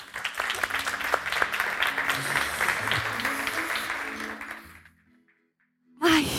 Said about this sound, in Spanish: Que suban, por favor, con un gran aplauso.